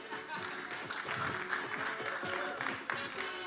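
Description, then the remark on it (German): A large audience claps steadily throughout, a dense, continuous wash of applause, with some voices mixed in underneath. “Ein Applaus bitte noch”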